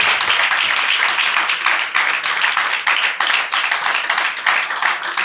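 audience applauding

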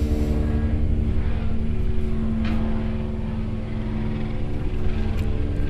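helicopter flying overhead

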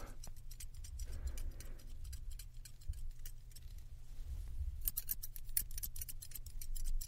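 scissors cutting hair

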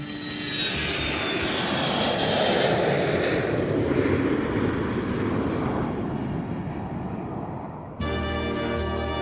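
airplane engine

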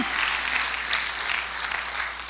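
audience applauding

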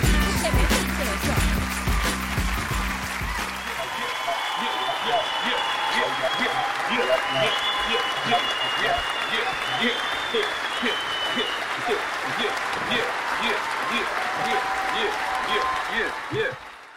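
long audience applause

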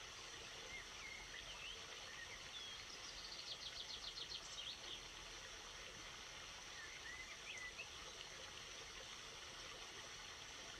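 flowing stream water

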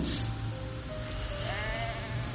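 sheep bleating

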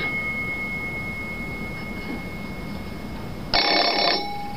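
telephone bell ringing

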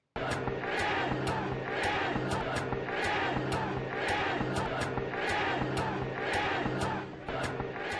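protest crowd shouting chants

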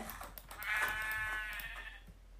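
sheep bleating

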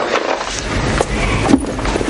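door being opened

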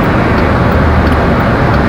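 car interior noise

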